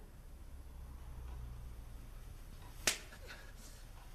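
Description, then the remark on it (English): A single sharp, loud slap of a hand striking a face, cutting through quiet with slight background noise and no talking. “Slap him.”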